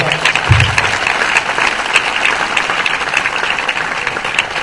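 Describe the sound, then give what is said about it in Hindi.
An audience bursts into loud, sustained applause in honor of Jesus Christ as King, a dense wash of clapping hands that holds steady for several seconds with no voices standing out. “hallelujah मेरे नहीं यस्सु मसीह जलाल पे बादशाह जला खोल के तालियां मिला”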